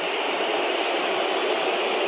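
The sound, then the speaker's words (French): A huge stadium crowd of about 80,000 people whistling together, blending into one dense, shrill, hissing roar that stays loud and unbroken for the whole moment, with no voices speaking. “80 000 personnes en salle de 86 000 qui sifflent, ça s'entend.”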